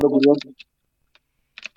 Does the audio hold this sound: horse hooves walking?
no